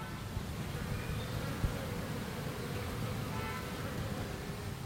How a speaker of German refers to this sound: Also wenn ihr jetzt ganz genau hingehört habt, dann habt ihr die Bienen gehört, die hier rein und raus fliegen.